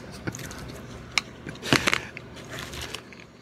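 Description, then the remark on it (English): A man chews a bacon jalapeno cheeseburger from Wonders: a sharp bite, then a run of wet, crunchy chewing with quick crackling bursts and soft squishes, moderately loud, with no talking. “He says the name of the food he's about to eat, and then he eats it.”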